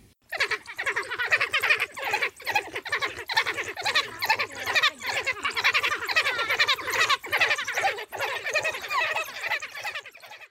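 A dense chorus of African wild dog calls: high, bird-like twittering and chirping from several animals overlapping in a continuous, busy stream, steady throughout with no talking.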